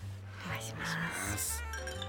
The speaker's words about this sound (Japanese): まあもうここからですね、はい、エビスビールで乾杯させてもらうということなんですけども、はい、よろしいでしょうか